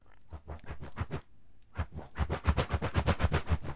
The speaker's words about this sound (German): Und da haben die Musiker den Bogen in die Hand genommen, also die Streicher, und haben dann angefangen, einmal ganz fest durch die Luft zu wedeln. Ich schau mal, ob man das hier hören kann. Das ist sehr leise.